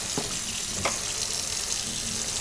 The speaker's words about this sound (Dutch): Maar vorige keer, ah, ik ga de afwasborstel even in de vaatwasser doen. Maar de vaat is dus schoon en ik doe daar nog vaten bij die ik nu was.